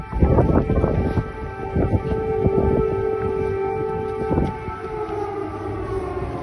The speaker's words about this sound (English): Kiev is a war zone, Mr. President. This is what it sounded like as he's walking. You hear those air raid sirens?